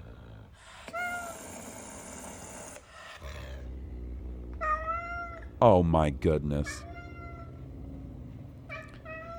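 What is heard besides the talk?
cat meowing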